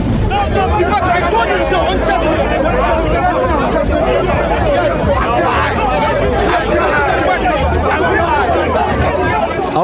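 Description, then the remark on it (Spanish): A rowdy crowd in commotion at an event, demanding things of the event's organizer: many voices shouting and talking over one another in a dense, steady roar that stays loud for the whole stretch, with no single speaker standing out. “escucha el audio del relajo que se estaba haciendo ahí”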